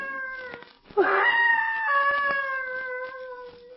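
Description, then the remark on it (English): An eerie, human-like scream from deep in the woods rises suddenly and stretches into a long, wavering wail that holds for several seconds, fairly loud and heard alone with no talking. “That cry sounded human. It's like a scream of mortal terror.”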